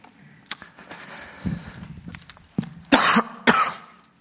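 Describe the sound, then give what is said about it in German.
A harsh coughing fit: several sharp coughs in quick succession, the loudest bursts near the end, with some throat-clearing rasp between them and no talking. “kann eben husten.”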